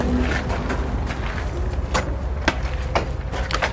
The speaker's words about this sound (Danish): Øhm, gå ud her. Jeg vil lige lukke døren.